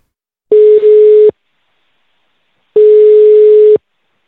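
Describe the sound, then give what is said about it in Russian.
A phone line's ringing tone: two long, steady mid-pitched beeps, each about a second, separated by a longer pause of silence, with no voices present. A journalist is calling a man who had not answered her messages; she got through after roughly 18 attempts. “Ответа не было, поэтому я ему позвонила. Дозвонилась примерно с 18 раза.”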